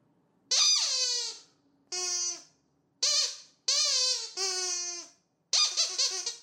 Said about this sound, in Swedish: Nej, jag har ju ingen saxofon. Jag har eh, en, eh, jag har en tuta. En gammal cykeltuta i formen det är vad jag har.